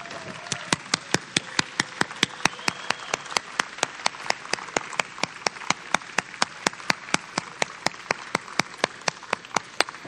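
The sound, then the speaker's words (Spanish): A church audience applauds its youth group for about ten seconds, a dense wash of clapping with sharp, steady rhythmic claps standing out above it at a brisk, even pace. No one speaks. “Déjenme darles un aplauso.”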